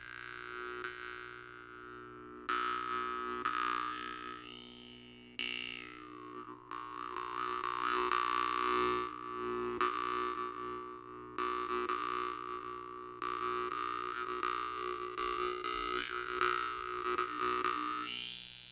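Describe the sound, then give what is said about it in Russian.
A jaw harp (vargan) plays a steady, buzzing twang, its wah-like overtones shifting as the notes are plucked in a repeating rhythm. No voices, just the instrument's continuous resonant drone. “Ты уж думаешь, как же это он звучит? А давай послушаем.”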